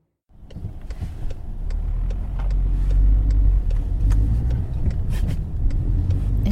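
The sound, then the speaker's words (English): A car drives steadily with a deep, continuous engine and road rumble that starts abruptly and holds at a loud, even level, with scattered faint clicks and ticks over it. “We had been in the car for nearly two hours, and Dad had refused to stop.”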